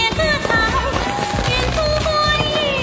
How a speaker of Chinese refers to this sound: 炮声此起彼伏，那必须的。